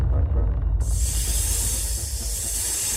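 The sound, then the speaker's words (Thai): A sustained, loud cobra hiss kicks in under a second after a low rumbling start, then holds as a steady airy hiss to the end, with no voices present; a cobra passing a big tree where a flock of crows lives. “อยู่มาวันหนึ่งมีงูเห่าตัวหนึ่งผ่านมาเห็นฝูงกาอยู่เป็นจำนวนมาก ก็ดีใจนัก”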